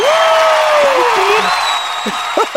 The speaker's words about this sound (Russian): Это аплодирует твой муж.